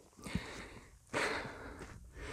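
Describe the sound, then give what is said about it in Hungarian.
Heavy, rhythmic panting while climbing uphill to a hilltop: several loud, breathy inhales and exhales in quick succession, with no talking. “Közben itt a nagy lihegésben azért megmutatom, hogy hova tartok éppen.”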